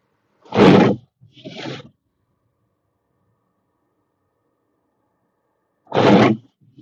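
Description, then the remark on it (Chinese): Harsh, gritty scraping of wind-blown snow against glass comes in three loud bursts: two in quick succession, then a long silence before a third rasping sweep. No one speaks. “雪刮这个玻璃的声音，没这个还不行呢。”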